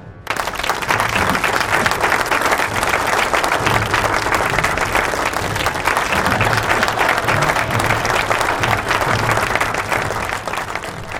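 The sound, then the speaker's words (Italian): A large crowd, with many police officers present, bursts into sustained, thunderous applause with excited shouts and cries of joy mixed in, loud and dense throughout, without pause for about eleven seconds. “perché la notizia non viene diffusa subito sui telegiornali, ma ci sono tanti poliziotti, la voce è girata, è uno scroscio di applausi, di urla di gioia, di qualcosa che da dentro ha bisogno di uscire, in memoria di tutti i loro morti.”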